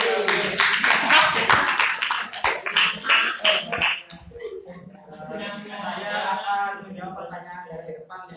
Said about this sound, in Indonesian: yes tepuk